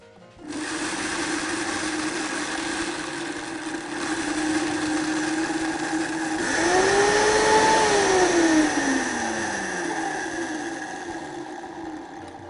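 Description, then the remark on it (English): A Vitamix high-speed blender runs on low, grinding a fine powder for rolling energy balls, with a steady, loud motor whir, briefly rising in pitch midway as the load shifts, then settling back to a constant drone with no talking. “Turn this on low, it's going to be kind of loud.”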